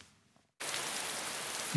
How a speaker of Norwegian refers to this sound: Dette er lyden av penger. Regnet som har hølja nedover oss i høst, har fylt opp vannmagasinene til kraftprodusentene, noe som strømkundene nå nyter godt av.